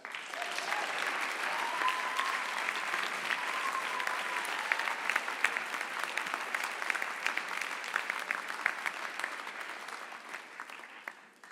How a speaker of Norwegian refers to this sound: Gi ham en stor applaus.